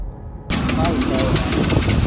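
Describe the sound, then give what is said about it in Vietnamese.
After a brief hush, a motorbike engine cuts in with a loud, low, uneven rumble, sputtering in rough pulses as if struggling, never climbing into a higher revving pitch; the motorbike, just ridden out of a repair shop after a tire change, fails to accelerate. “Vừa ra khỏi cửa tiệm, chúng tôi gặp một sự cố tiếp theo. Xe không thể lên ga.”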